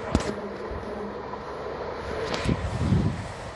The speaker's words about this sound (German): Jetzt fährt ja noch die Bahn.